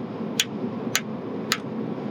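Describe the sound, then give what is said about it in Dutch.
Three sharp, evenly spaced, fairly loud ticks made by mouth imitate radiator pipes knocking as the heating comes on, heard inside a car over a steady low rumble. “En eh, het klonk alsof een radiator wat je wel eens hebt in, een huis. Als de verwarming aangaat, dat, eh, dat die pijpen beginnen te tikken.”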